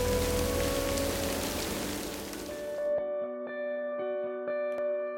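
Steady, dense rain hisses loudly for about three seconds, depicting clouds of water vapour raining down on the cooling early Earth to form the oceans, then cuts away to sustained synth tones and soft, evenly spaced struck notes, with no voices.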